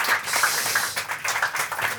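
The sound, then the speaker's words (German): A crowd applauds steadily to welcome a guest, a dense wash of many hands clapping at once, sustained and fairly loud throughout with no voices standing out. “Ein Applaus nochmal kurz, wenn wir schon mal alle hier sind.”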